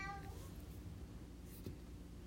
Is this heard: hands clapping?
no